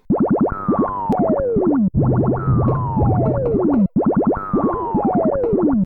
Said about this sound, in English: And the elevator screen has no music whatsoever, just the little boingy sounds of the springs.